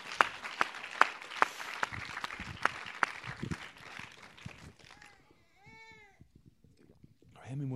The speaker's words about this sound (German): All right, let's give Lord a clap offering. Praise Lass uns dem Herrn nochmal einen Applaus geben.